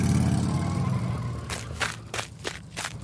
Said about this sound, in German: Hier läuft jemand mhm. über einen sandigen Weg.